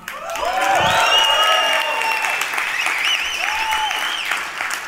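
A crowd breaks into loud, sustained applause that fills the whole moment, with cheers and whoops rising over the dense clapping before it eases slightly toward the end.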